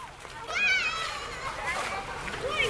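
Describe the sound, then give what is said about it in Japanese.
Children shout and squeal happily while playing outdoors in Nara, Japan, their high bright voices rising and falling over steady background crowd noise. “子供たちは喜んでおります”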